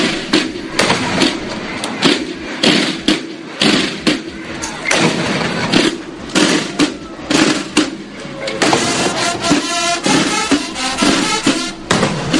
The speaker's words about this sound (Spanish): Después dispararon salvas y sonaron los cañonazos.